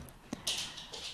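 A dog's paws tap softly across a hard floor as it walks to its water bowl, a sharp click followed by a few quick, light scratchy steps, quiet, with no voices.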